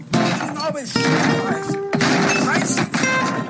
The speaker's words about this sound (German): Und deswegen mache ich jetzt hier diesen Tisch mal kaputt, ja?